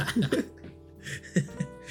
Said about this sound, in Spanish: O toses, yo siempre hago la de toser, weón.